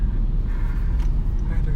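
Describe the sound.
A steady, loud low rumble of cars going by, like traffic close at hand, continuous through the short stretch with faint muffled voices mixed in.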